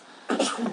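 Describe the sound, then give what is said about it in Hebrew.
A single short, breathy sneeze bursts out after a moment of quiet, a sharp rush of air that trails off quickly. “לבריאות.”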